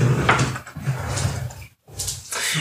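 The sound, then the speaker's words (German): A chair scrapes and shuffles roughly across the floor as it is moved off a cable, breaks off for a brief silent moment, then scrapes and bumps again. No one speaks. “Äh, der Stuhl steht auf diesem Kabel hier.”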